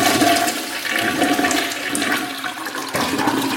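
A toilet flushes loudly, a steady rushing, gurgling swirl of water that continues for several seconds with a brief surge near the end.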